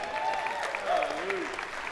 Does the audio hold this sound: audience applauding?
yes